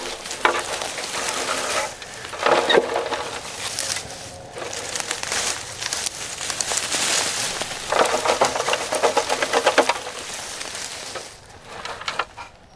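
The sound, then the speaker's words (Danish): A mass of old, dry withered branches crunch and crackle underfoot in a series of uneven, bright bursts, several steps pressing into brittle twigs with a continuous crinkling texture between them. “man kan høre måske, hvordan det knaser, når jeg træder herind. Og det er jo bare sådan en hel masse gamle øh, visne grene”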